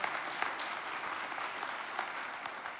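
A church audience claps steadily in support of a pastor who will be baptizing, the dense patter of many hands filling the space for a few seconds without pause, even in volume.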